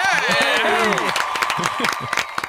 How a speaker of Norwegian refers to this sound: Applaus for eh, Sunniva og Johannes!